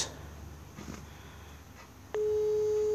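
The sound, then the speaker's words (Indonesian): A phone line starts ringing out: after two seconds of low background hiss, a steady, loud electronic calling tone switches on and holds at a constant pitch until the end. “Oke, kita telepon.”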